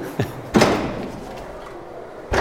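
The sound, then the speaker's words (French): A heavy wooden double door, very hard to open, creaks and thumps as it is pushed open at the entrance of a barrel cellar, with a low scraping rumble and a second knock at the end, fairly loud. “Et puis on voit Déjà cette, la porte, cette, double porte en bois, très dur à ouvrir.”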